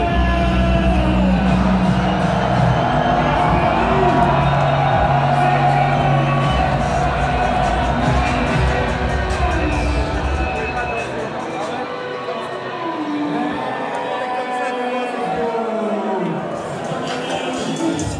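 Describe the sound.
A dense, loud concert crowd in France roars and cheers continuously, recorded from the middle of the crowd, many overlapping voices and shouts blending into a steady wall of noise, with faint sustained musical tones underneath.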